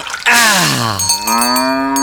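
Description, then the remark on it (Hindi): A cow named Dhano lets out a long, loud moo whose pitch dips low and then rises again, rich in harmonics, while being bathed, with faint splashing water in the background and no talking. “उस वक्त गोनू झा अपनी गैया धनो को नहला रहे थे”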